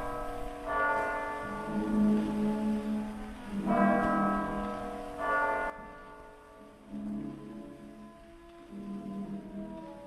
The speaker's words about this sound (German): Das 1 Uhr läuten der Kirchturmuhr hört er schon nicht mehr.